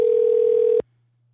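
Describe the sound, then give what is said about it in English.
A steady, loud telephone dial tone of an outgoing call, placed to add a participant during a Crowdcast stream, hums for under a second and then cuts off abruptly, leaving near silence. No one speaks. “So you should be getting a call in a second,”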